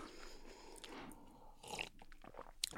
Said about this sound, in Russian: Большие орешки лучше не жевать. Сука, они долго жуются.